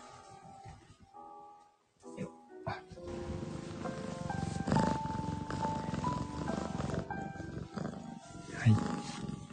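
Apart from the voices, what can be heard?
cat purring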